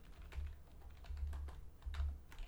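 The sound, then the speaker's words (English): Irregular clicking of keys on a computer keyboard as the film title The Man Who Knew Too Little is typed in to look up its Rotten Tomatoes score. A quick burst of typing with a low rumble underneath and no voices. “and I'm typing it in.”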